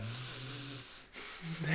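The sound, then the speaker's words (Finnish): A voice imitates the heavy, held-back panting of someone badly out of breath after running and trying to hide it, strained breaths pushed through a tight throat with a low hum, fairly quiet, rising again briefly at the end. “tiedätkö, silleen yrittää yeah. pidätellä sitä, että on ihan vitu hengästynyt.”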